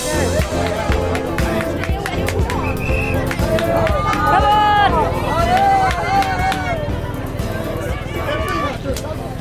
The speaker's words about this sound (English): Well, that was the thrilling sound of the journalists all standing around, uh, crouched around the televisions on the finish line, getting very animated. It's actually not something that happens that often that the journalists start cheering people.